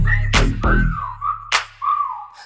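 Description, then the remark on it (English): A gliding, wavering whistle, first rising then falling, plays over a heavy bass beat with sharp percussive hits, loud, lasting about two seconds. “Damn, that ass fat, had to whistle like.”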